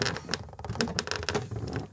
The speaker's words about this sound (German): Man hört Hammerschläge, geschäftiges Treiben und ab und zu sogar einen derben Witz.